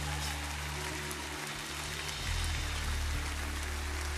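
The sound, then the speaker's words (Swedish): An audience applauds steadily, a dense wash of crackling claps with no individual beats, growing a little louder partway through and continuing to the end, with no talking. “Och vi vill ge dig jordens största applåd.”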